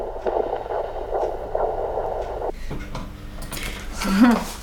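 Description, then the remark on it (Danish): The heartbeat of a baby girl in the womb on a Doppler monitor during a pregnancy check, fast rhythmic whooshing pulses for a couple of seconds, then fading under murmuring sounds and a brief higher tone near the end. “Der Der er hun simpelthen jeres datter. Og smuk puls ressourcestærk og fin, som man skal være.”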